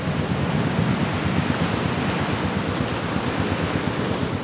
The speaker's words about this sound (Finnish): Kalastajavene ponnistelee eteenpäin parimetrisessä aallokossa.